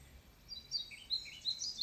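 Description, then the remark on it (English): Birds sing softly in a forest, with a string of high, thin chirps and short trills repeating every fraction of a second over a quiet, hushed background. “You can hear the birds singing.”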